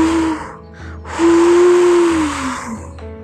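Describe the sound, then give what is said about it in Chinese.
Howling wind sweeps through an old forest at night in two rushes: a breathy, hissing roar carrying a steady whistling moan that holds, then slowly slides downward as the gust fades. “那一夜的星空很明亮，风吹过老林子，呜。”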